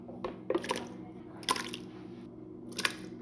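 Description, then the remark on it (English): Chunky salsa of tomato, cilantro, onion and garlic slops into a bowl in three short, wet splats spaced about a second apart, fairly soft over a steady low hum. “So should I pour that in a bowl?”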